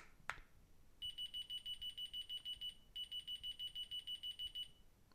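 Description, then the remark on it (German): A high-pitched electronic alarm, triggered by pressing the first button on a remote control, beeps in rapid, evenly spaced pulses, pausing briefly midway before resuming. A short click sounds just before it starts; it is clear and moderately loud, with no talking. “So, das ist von der Lautstärke her jetzt nicht übermäßig laut, aber dieses Piepsignal ist in der Frequenz, dass wir das eigentlich gut hören können.”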